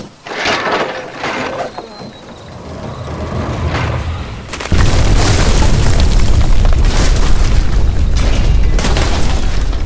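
A catapult shot strikes the Hexenturm (witch tower), smashing it: rumbling, clattering lead-in, then a sudden loud boom at the midpoint followed by sustained crashing, roaring debris that stays loud to the end.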